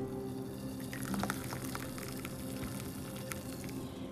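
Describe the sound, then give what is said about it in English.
Hot water pours steadily from a small red teapot into a coffee cup for several seconds, a continuous trickle with small splashy flickers and a faint rising fill tone. No one speaks. “then listen to it as it ever so gently flows into your cup of coffee with a lot of bit of cream and a lot of bit of sugar.”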